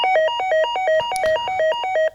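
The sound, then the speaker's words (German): An electronic doorbell chime plays a quick, repeating melody of short, bright alternating tones, steady and fairly loud for about two seconds, with no voices. “Ähm, es hat äh, geklingelt ungefähr so und dann ähm,”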